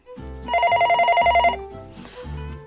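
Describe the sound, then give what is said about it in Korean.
A telephone bell rings at a workplace desk in a rapid trilling burst lasting about a second, bright and loud, an incoming call from an unknown number, set within a bed of low tonal background music with no speech. “그 전화 오는 것 같은데”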